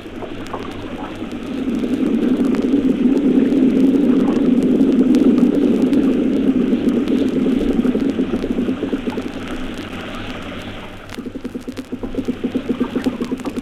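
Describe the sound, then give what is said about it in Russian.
A chorus of fish sounds made by swim bladders, recorded off the coast of Crimea: a dense, low, bubbling drone that swells to a peak over several seconds and then fades away, with a faintly pulsing texture near the end. “Как бы в ответ на одиночные сигналы – возникают хоровые шумы рыб в виде нарастающей, а затем затухающей шумовой волны.”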